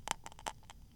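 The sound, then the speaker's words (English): A quiet crackle of a match being lit, several short sharp snaps and fizzes in quick succession, then fading into a soft hiss with no voices. “Ooh, you heard that crackle?”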